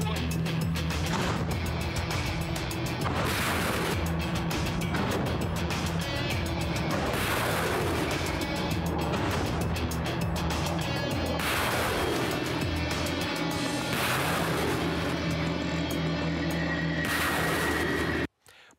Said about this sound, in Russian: Продвижение наших войск в Маринке также непрерывно поддерживают грады. Плотный огонь из РСЗО не оставляет противнику шансов на спасение.